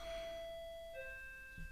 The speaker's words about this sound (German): Mit der Klingel. Manchmal klingelt es einfach.